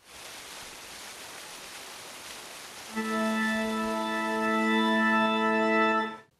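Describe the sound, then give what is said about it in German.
Steady rushing water splashes on its own, then a sustained organ chord swells in over the spray and holds for several seconds before cutting off: a 16th-century water organ in a fountain in the park of the Villa d'Este in Tivoli near Rome, Italy, playing without a player. “Diese weltweit einmalige Wasserorgel, die steht in einem Brunnen im Park der Villa d'Este in Tivoli bei Rom.”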